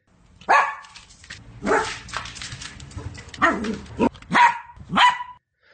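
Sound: dog barking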